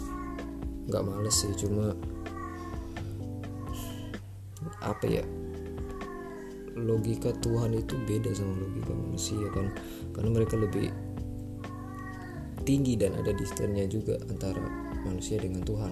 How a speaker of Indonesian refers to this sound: uh, sorry ya teman-teman kalau ada suara kucing lagi ngaung-ngaung gitu uh, aku recordnya habis subuh sih jadi ya itu